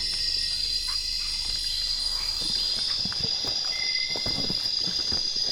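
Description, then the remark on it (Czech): A large green bush-cricket trills in a rainforest in a steady, unbroken high buzz like a doorbell that carries through the whole stretch, with scattered soft knocks and rustles in the background and no one speaking. “A tohle, to, co slyšíte, takový to trrr, Tohle, trr, to je taková velká zelená kobylka.”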